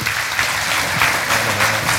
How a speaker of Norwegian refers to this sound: Applaus!